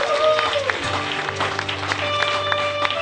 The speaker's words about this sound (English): Can we give them one last round of applause?